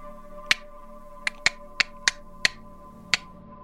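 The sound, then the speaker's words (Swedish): Seven sharp, crisp clicks sound alone at uneven intervals from the other end of a room, each short and snappy like a finger snap, over a faint steady background hum. “I andra änden av rummet hör ni någon form av klickande ljud.”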